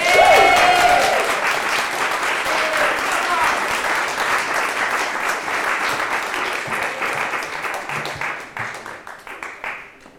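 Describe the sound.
An audience breaks into sustained, dense applause welcoming a member of a writing group to the stage, steady and loud for several seconds before thinning into scattered claps as it fades out near the end. A brief voice rises at the start.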